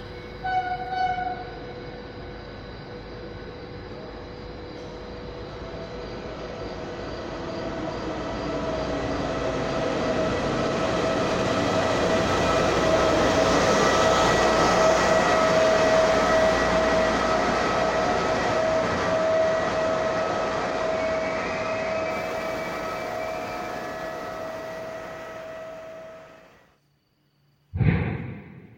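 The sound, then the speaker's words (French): A train rolls through Lamedia station in Calabria, Italy, with a sustained horn tone, its rumble swelling to a peak midway and then fading before a brief sharp sound at the very end. No one speaks. “Vous pouvez entendre la gare de Lamedia en Calabre et des explosions du volcan, le Stromboli.”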